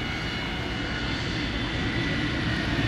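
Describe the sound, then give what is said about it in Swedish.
Loud engines of a plane standing at an airport drone steadily throughout, a dense, continuous roar with heavy low rumble and broad hiss, unbroken for the whole few seconds, with no voices. “Man och hustru försöker överrösta de högljudda motorerna och lite på sidan om står flygkaptenen och undrar om han borde ingripa.”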